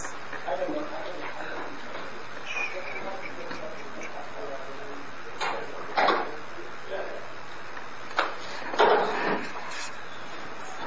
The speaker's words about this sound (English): Someone close that, that door.